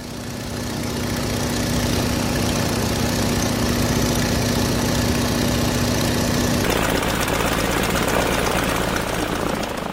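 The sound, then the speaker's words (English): A steady, loud propeller-plane engine drones continuously as the plane searches from the air over the county of Cross Plains, with a sustained low hum and tone that shifts abruptly partway through as the engine's pitch and texture change when the engine fails and the plane goes down. “Start that engine again.”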